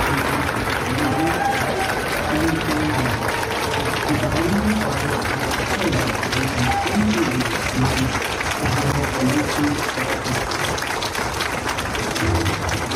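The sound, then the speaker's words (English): A crowd at a celebration applauds steadily as an award is given, a dense, even wash of many hands clapping at constant loudness, with indistinct voices murmuring underneath. “One is simple sounds of applause.”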